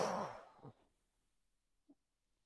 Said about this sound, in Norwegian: Da puster vi godt inn, og så holder vi pusten. Og pust ut.